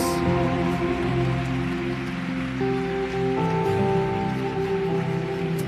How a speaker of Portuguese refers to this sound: Você pode aplaudir os novos decididos. Glória a Deus. Glória a Deus.